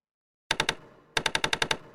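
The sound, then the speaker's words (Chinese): Sharp, rapid knocking by a woodpecker on the door of Spotted Dragon's cake shop at daybreak: a quick burst of three loud raps, a brief pause, then a faster run of about seven more, with no voices. “天才刚亮，怎么就有人来斑点龙的蛋糕店敲门？”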